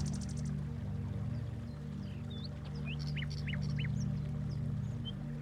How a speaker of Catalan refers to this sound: En una clariana del bosc apareix el curs d'un petit rierol. L'escoltes abans que el veus. T'arriba el so de l'aigua.